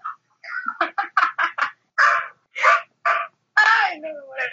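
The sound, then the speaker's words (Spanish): A pet bird named Greta calls out at home in a loud series of harsh squawks, first several quick bursts in a row, then a few longer, drawn-out cries with short pauses between. “Ya que hablamos de idiomas, al fondo pueden escuchar a la mascota de”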